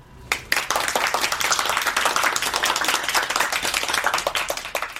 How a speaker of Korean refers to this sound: 소개가 끝나자 박수가 터졌다.